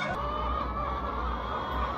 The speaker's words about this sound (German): Der Hühnerkönig Anton Epp hat 8000 Ökohühner in vier Hallen. Wenn sie können, dürfen sie frei laufen.